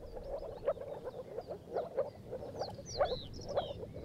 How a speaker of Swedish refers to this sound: det visade sig sen vara ett jättestort spel av åkergroda